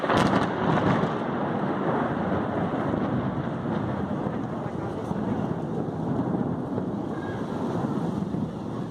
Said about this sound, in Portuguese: eu ia falar que para finalizar a gente fala um, dois, três, Shazam e eu boto um raio na edição assim, ó, pá.